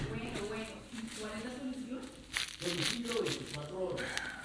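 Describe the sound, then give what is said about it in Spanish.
Crinkly rustling of a bag used to hold microphones, handled in bursts while packing, with a voice speaking over parts of it. “La bolsa donde guardo los micrófonos.”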